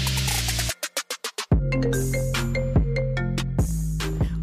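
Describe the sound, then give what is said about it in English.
An electronic voicemail tone sequence for the Burner phone line plays alone: a brief sustained chime, a quick run of about six short beeps, then a bright synthetic jingle over steady low notes, fairly loud. “If you leave a message after the tone, we may have to make it into a podcast.”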